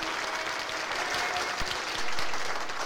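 A steady burst of dense applause, many hands clapping at once in a continuous, crackling wash that swells slightly louder toward the end.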